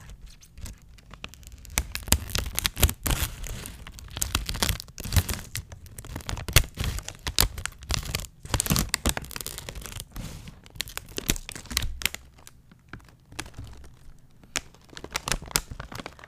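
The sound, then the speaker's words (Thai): Crisp snipping and crackling as scissors cut open a pink plastic bag of paprika-flavored snacks, with repeated sharp crinkles and tearing sounds in an irregular rhythm; no one speaks. “ทีนี้เดี๋ยวจะขอใช้กันไกลในการตัดถุงเปิดนะคะ เพราะว่าถ้าเกิดกระชากถุงออกมาเนี่ย เรากลัวว่าเสียงมันจะดังเกินไปเนาะเราก็จะไม่เป็น ASMR เท่าที่ควรไงล่ะ”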